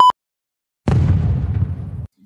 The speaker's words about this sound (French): À 22h47, une explosion retentit à bord du bus et c'est le drame.